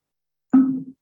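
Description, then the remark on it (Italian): A single press of the microphone mute button, the left one of four cross-arranged buttons on top of an Echo smart speaker: a soft thump with a brief low hum that fades within half a second, heard alone with no talking. “I due estremi alto e basso sono i volumi Lato sinistro è il microfono da escludere, infatti sentite si fa”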